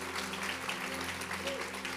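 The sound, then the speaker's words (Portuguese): A church audience applauds its team of musicians and sound technicians, dense overlapping clapping that stays steady and continuous throughout, moderately loud, with a low constant hum underneath and no clear speech. “Vamos aplaudir forte, por favor.”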